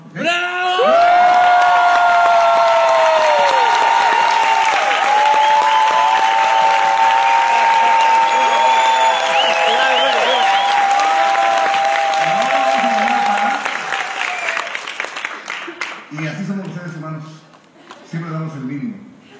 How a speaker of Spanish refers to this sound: Entonces les voy a volver a pedir que les demos un fuerte aplauso.